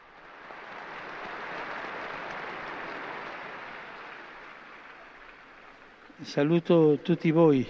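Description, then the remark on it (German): Sustained crowd applause for a newly beatified man, a dense wash of clapping that swells and holds for about six seconds, then fades as a man begins speaking. “Einen Applaus für den neuen Seligen.”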